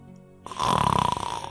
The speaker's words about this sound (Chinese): 夜晚，当所有需要讲的故事都讲完，所有的书都放回到书架上的固定位置后，厚厚的大词典里会飞出最后一个词语：“呼噜，呼噜，呼噜。”